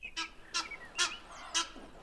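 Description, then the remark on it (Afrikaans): A large water bird, like a goose, sitting beside a pond in a large palace garden, honks four times in a steady rhythm, loud, with quiet outdoor background between the calls. “Sy kyk rond en sien 'n groot voël langs die dam sit.”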